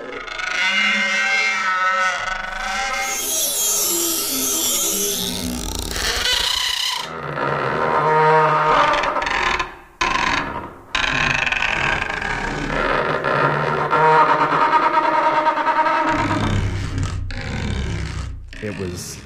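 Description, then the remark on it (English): Gritty scraping of a rosined violin bow on a cactus stem, recorded with mics one or two inches away: a continuous screechy rasp with sweeping pitched overtones, shifting in strokes with brief pauses near the middle. “Got the violin bow out, the rosin on it, set up the mics so they were really, really close, one or two inches away, um, and just started bowing this thing.”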